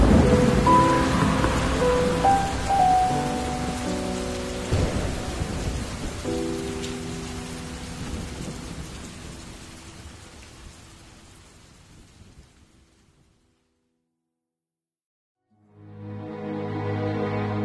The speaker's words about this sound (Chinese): 陷入到了沉思，车依然在雨中飞驰着。